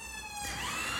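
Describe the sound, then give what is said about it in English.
Emergency vehicle sirens wail continuously outside, a rising and falling tone with a slight pitch shift as they pass, no talking over them. “excuse the sirens.”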